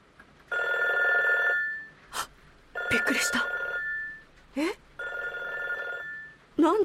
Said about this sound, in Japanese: この電話が鳴るのまさか